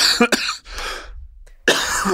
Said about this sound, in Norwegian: får litt hosteanfall her.